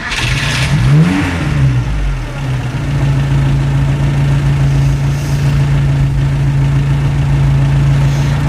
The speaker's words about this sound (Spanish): Reinhard Heydrich, llegaba tarde. Estamos escuchando su coche, un Mercedes 770, mientras avanza por un bosque hacia las afueras de Berlín. Hace frío fuera, menos 12 grados,